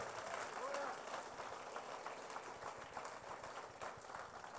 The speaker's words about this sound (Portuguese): Se você crê nisso, dê um aplauso a Jesus mais forte que você puder.